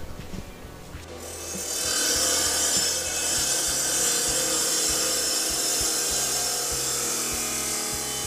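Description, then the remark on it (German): A stone-cutting saw grinds steadily through a hard tiger's eye stone, a loud, continuous high-pitched whine with a low motor hum beneath, rising in intensity after the first second and holding without talk. “Ah ja, so hört es sich also an, wenn so ein Tigerauge dann geschnitten wird.”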